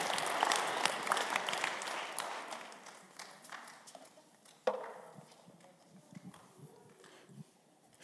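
An audience bursts into dense, crackling applause that is loudest at the start and gradually thins out over several seconds, with a single sharper knock standing out midway as the clapping fades.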